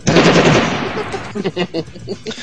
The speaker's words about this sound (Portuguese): Não, o pior é quando você dá, você dá um tiro assim, de pente, tipo,